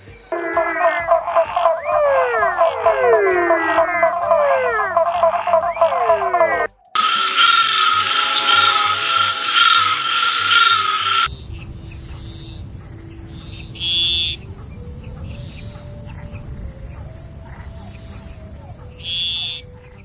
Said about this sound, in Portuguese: Mas agora mudando de grupo, falando dos anuros, né? Do aí o grupo que envolve sapos, perecas e rãs, é isso mesmo, pessoal?